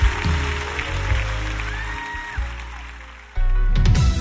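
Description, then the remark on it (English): A church audience claps steadily together to thank God during worship, a dense rush of hand claps, with a faint sustained musical tone drifting underneath before the sound shifts abruptly near the end. “Come on, let's clap and thank God one more time.”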